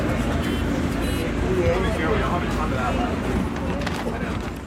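Steady engine rumble fills a moving, crowded city bus in a central, touristy area of Barcelona, loud, with many passengers chattering indistinctly throughout.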